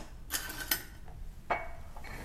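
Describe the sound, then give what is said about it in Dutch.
Several sharp clinks and clatters of dishes and cutlery, including a small knife, being set down, a few irregular knocks spaced out over a couple of seconds, with no talking. “Zo, en dan leg ik dan hier. En dan een mesje hier.”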